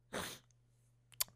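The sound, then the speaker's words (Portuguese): A single abrupt sneeze bursts out, followed by a quiet pause and a brief sharp sniff or click, all over a faint steady electrical hum. “Santinho puto, obrigado.”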